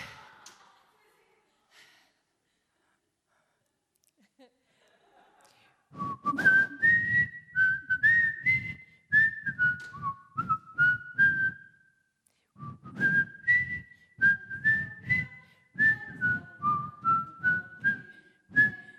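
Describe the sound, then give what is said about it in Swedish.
A person whistles the simple, bouncy melody of the Swedish children's song 'När det stormar', two phrases of clear pitched notes separated by a short pause, with breathy puffs between notes and no talking. “Vilken var det? När det stormar.”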